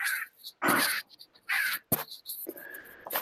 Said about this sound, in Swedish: Skriker fåglarna fortfarande i bakgrunden? Ja, lite grann gör. De. det är en trevlig kuliss.